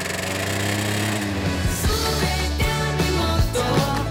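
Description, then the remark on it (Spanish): A motorcycle engine revs loudly and continuously, its buzzing drone rising and dropping in pitch several times as if shifting through gears. No one speaks. “Maldita moto.”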